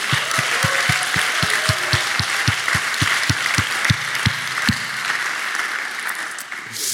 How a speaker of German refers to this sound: Aber ich finde es trotzdem gut, hey, wenn wir nochmal noch mal eurem Leitungsteam richtig großen Applaus geben. Come on, come on.